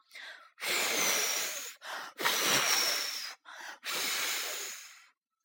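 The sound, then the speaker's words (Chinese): A voice imitates the big bad wolf huffing and blowing hard to blow down the little pigs' house: three long, loud, breathy blasts, each followed by a quick sharp intake of breath, with no words spoken. “大灰狼又开始大口大口的吹气了。”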